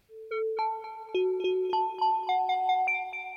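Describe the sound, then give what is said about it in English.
A through-zero FM synth patch on an oscillator, made to sound like a mallet percussion instrument, plays a melodic line of about a dozen quick, bell-toned notes in a steady rhythm, with notes and FM ratio randomized, each ringing out with reverberant tails that blend together. No voices. “And I achieved that with a through zero FM patch on the so oscillator that sounds like this.”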